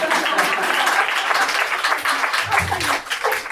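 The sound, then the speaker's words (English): A crowd applauds steadily, dense overlapping claps forming a continuous wash of noise that holds at an even loudness throughout, with a faint voice briefly surfacing near the end. “Applaud that like it's the most noble thing.”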